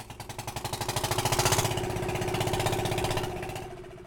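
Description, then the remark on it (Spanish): The outboard motor of a boat in Colombia runs with a rapid, throbbing putter, growing louder over the first second or so, then holding steady before easing slightly at the end. “En muchas partes de Colombia se le dice Johnson a las lanchas que tienen un motor por fuera de borda.”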